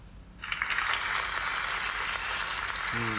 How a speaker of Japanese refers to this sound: さっきより拍手ちっちゃいな何んならこれ失笑みたいな笑い方は